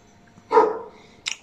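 animal, dogs barking

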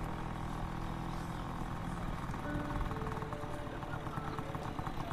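vehicle, motorcycle engine running

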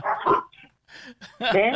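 animal, neighborhood dogs barking

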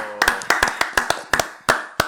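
crowd, applause

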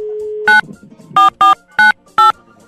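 household object, telephone number being dialed

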